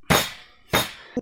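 Two loud, heavy blows from a pointed iron hammer strike down onto a table about half a second apart, each with a brief crunching decay, followed by a smaller, softer knock at the end. No voices.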